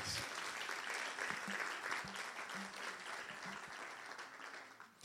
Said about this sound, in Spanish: Dale un aplauso fuerte a Dios si tú lo crees.